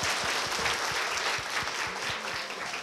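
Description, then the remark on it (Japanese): Steady audience applause at a Studio Ghibli fan Q&A event, a dense patter of many hands clapping continuously with slight swells in loudness, filling the whole stretch without pause. “きっとね熱狂的なファンですよね だって皆さん拍手を差し上げて”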